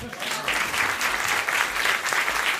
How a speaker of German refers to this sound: Bitte schön, ähm, ein Applaus für Leipzig.